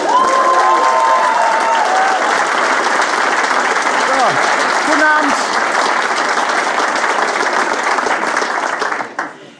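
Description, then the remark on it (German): A large audience at a live comedy show by Hennes Bender, recorded on 24 February 2010 in Essen, claps loudly and steadily, with scattered cheers, for nearly ten seconds before cutting off. A man's voice briefly speaks over the dense applause near the start. “Mein Name ist Hennes Bender und das ist das Publikum.”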